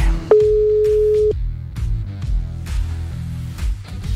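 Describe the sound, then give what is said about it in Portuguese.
A single steady, mid-pitched telephone ringing tone sounds for about a second, loud and even, then cuts off, leaving a dense musical background that continues underneath and after it; a live phone call being placed to someone at Interlagos. “Vamos tentar ligar para ele aqui para fazer mais uma intervenção direto de Interlagos”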